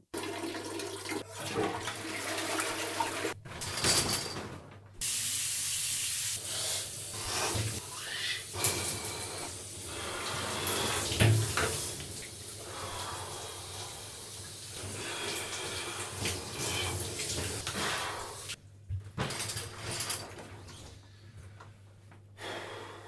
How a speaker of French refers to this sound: Je prends des douches froides aussi. Tiens, je vais vous faire écouter une douche froide, ça donne ça.